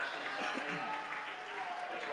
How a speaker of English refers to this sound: so a double change for Westbury generous applause again from the uh, Westbury crowd, and rightly so.